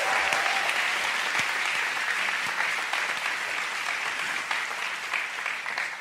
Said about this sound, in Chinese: 哎，大声一点，拍手把荣耀归给主。